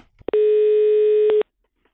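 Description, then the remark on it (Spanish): A telephone ringing tone sounds once: a loud, steady electronic tone lasting about a second, preceded by a couple of faint clicks, with no voices. “La llamada.”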